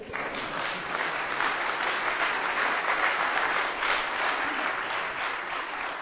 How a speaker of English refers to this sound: That's a good place for a hand clap and an amen. Come on.